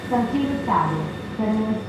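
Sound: subway train running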